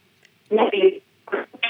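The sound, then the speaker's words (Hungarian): A voice comes through a narrow, muffled phone line in short choppy bursts separated by dropouts, the speech garbled and smeared as if talking from underwater. “legyen szíves egy kicsit helyezkedni a telefonnal, mert időnként olyan, mintha a víz alól beszélne.”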